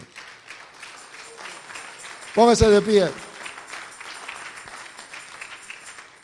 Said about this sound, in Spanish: Démosle un fuerte aplauso a nuestro Dios.